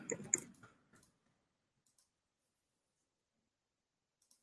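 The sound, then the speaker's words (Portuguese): A quick flurry of keyboard clicks at the start, then a few sparse isolated taps separated by long quiet gaps, as someone types on the wrong keyboard. “Ah, de novo eu fui na, na, no teclado errado.”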